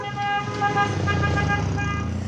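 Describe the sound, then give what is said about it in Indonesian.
Busy road noise with many cars rumbling past, a steady engine drone underneath and sustained horn-like tones sounding over the traffic. “Aduh, jangan lari. Banyak mobil itu.”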